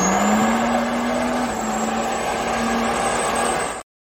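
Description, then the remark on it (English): A loud, steady truck engine drones with a low rumbling hum, its pitch creeping up slightly and then holding before cutting off abruptly after nearly four seconds. “Oh man, I love it anytime I see the truck, I just want to hit this.”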